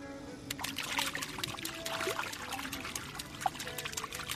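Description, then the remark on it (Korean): A voice imitates the sound of feet kicking and splashing in water while swimming, for comparison with a KBS sound effect: a continuous run of wet, sloshing bursts at a moderate level, irregular but steady for several seconds, with no talking. “남창희 씨가 직접 들려주시는 물장구 소리 큐.”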